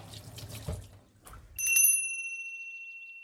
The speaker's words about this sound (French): Je me lave les mains parce que, bon, même si j'essayais de de pas trop toucher euh, au moment des flex, au moment du mélange, j'en ai un peu sur les mains.